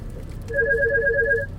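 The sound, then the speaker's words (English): A phone rings with an incoming call from a doctor's office, a rapid warbling electronic trill lasting about a second, clear over a low background hum, with no one speaking. “I'm getting a phone call from the doctor's office that wrongfully billed me.”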